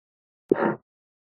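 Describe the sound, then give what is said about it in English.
A single short recorded fart, about a third of a second long, clipped out on its own, starting abruptly with a sharp pop and trailing into a brief buzzy rasp, heard alone against silence. “It's interesting when you can see a fart.”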